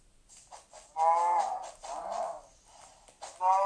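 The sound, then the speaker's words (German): A cow moos several times in a video game, with drawn-out, harmonic lows separated by short pauses, fairly loud, with no talking. “Ja, noch ein Schwein und eine Kuh.”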